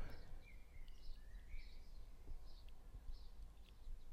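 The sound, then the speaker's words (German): Faint birds chirping outside, a string of short high tweets repeating every half second or so over a low, steady background hum, soft with no one talking. “Ihr hört jetzt wahrscheinlich draußen die Vöglein zwitschern, aber den Computer, den hören wir nicht.”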